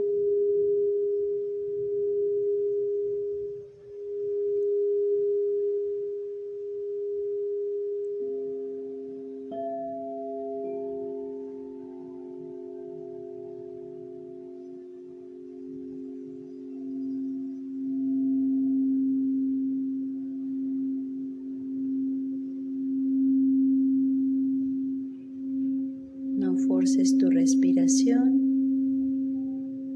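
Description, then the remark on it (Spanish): Singing bowl tones hum in long, steady layers during a bowl meditation, a second lower bowl joining partway through to blend with the first, before a brief bright shimmering ring near the end. No one speaks. “La intención de nuestra meditación con cuencos es mantener la mente en calma, en silencio total.”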